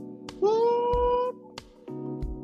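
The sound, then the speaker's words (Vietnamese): An old iron gate creaks on its ungreased hinges as it is touched, in one long, rising, whining groan, fairly loud, framed by a few dull knocks before and after. “Khi cần tra thêm mỡ để không tít lên nữa, rồi cô bé lát bơ và trà vào bản lề như vậy mà cánh cửa khép lại một cách lặng lẽ khi cô đi qua”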